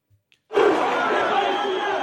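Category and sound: crowd, crowd booing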